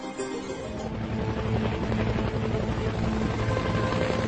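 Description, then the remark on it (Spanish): A turbine helicopter flies steadily, its rotor beating in a rapid, continuous chop under a loud, constant engine roar that holds for the whole stretch without any voices. “El helicóptero de turbina fue el símbolo de la guerra de Vietnam el Bell HU-1, más conocido como Way, un apoyo inventado por los pilotos militares, basándose en las iniciales del helicóptero.”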